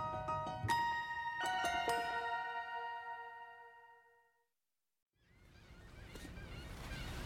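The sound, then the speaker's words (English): Several loud squawks from a flock of seagulls swooping overhead along the San Francisco waterfront ring out in quick succession and trail off, then after a brief silence a steady wash of harbor water and surf fills the background. “San Francisco, boats away in the gentle current, and overhead, flock of seagulls swoop and squawk loudly.”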